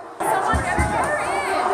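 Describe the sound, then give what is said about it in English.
A dense, hostile crowd screams obscenities and shouts angrily all at once, a loud, continuous roar of overlapping voices with sharp cries rising above the din. “The crowd screaming obscenities, and no one came to her aid, not even the cops.”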